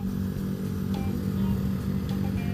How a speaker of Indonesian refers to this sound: motor lu berisik anjing